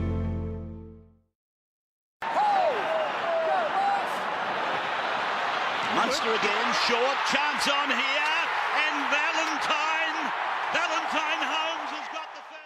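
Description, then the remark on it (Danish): A large stadium crowd at a rugby match between Queensland and New South Wales roars and cheers loudly and steadily, with scattered shouts and sharp claps, after a brief voice and a moment of silence at the start. “Når man hører så mange tilskuere, så tænker man nok, at det er mange måneder siden, men det er faktisk kun få dage gammel klip.”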